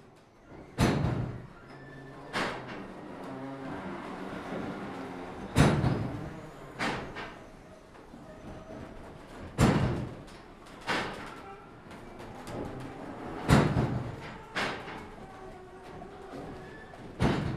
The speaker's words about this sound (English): So that first clip that we heard was from my trip to see the working windmills at Schans in the Netherlands.